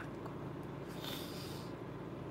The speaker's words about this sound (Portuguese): Você me desculpe se eu estar. Tá puxando, fungando, é que eu tô gripada, tá?